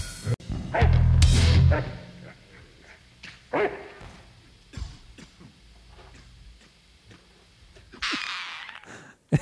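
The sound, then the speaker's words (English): Coughing at the end of a heavy song: several harsh, raspy bursts at irregular intervals, a loud heavy one early on, quieter hacks in between and a longer rough wheeze near the end, with no talking. “so the coughing at the end too that I like.”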